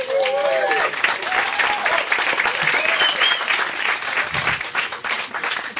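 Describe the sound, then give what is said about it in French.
A studio audience on the sixth floor of the Maison de la Radio, live on France Inter, bursts into sustained applause and cheering, dense clapping filling the room with whoops and shouts rising above it throughout. “Et eh ben, on, va, on va lui demander de, de, de, de se manifester à cette foule sentimentale.”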